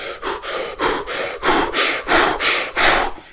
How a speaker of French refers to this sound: Il s'agit d'inspirer et d'expirer avec la bouche rapidement, fort, euh, tu vois, sans aller à la, à la respiration complète, mais euh, inspirer, expulser l'air en, en, forçant rapidement avec, euh, avec contraction, avec, euh, avec violence en fait,